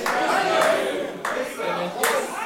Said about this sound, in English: Folks, I'm glad you are clapping, not clapping to encourage me, but you must clap from your heart.